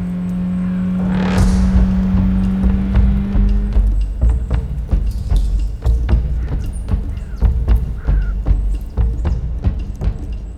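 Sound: car engine roaring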